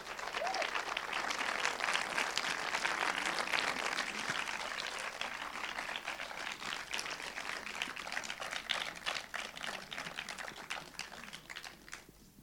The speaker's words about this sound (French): Voilà, merci de les applaudir.